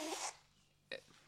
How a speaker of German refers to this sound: Gesundheit, alles Gute.